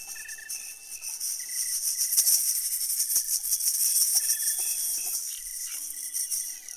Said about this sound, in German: Da hatten die Musiker, die im Raum verteilt sind, hatten alle ein Shaking Egg in der Hand oder eine Maraca, also so ein kleines Ei aus Plastik oder aus Holz mit Reiskörnern drin.